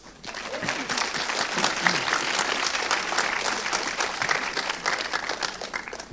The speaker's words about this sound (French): Je vous demande de l'applaudir.